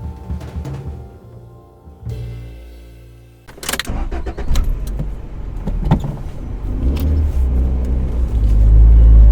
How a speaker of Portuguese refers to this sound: ruas da cidade deslizavam sob as rodas do carro de Vanessa